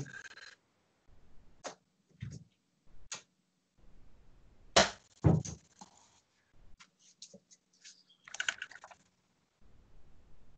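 A cat scratches at wallpaper in short, irregular bursts of dry, rasping scrapes, some louder and sharper than others, separated by brief pauses over about ten seconds, with no talking.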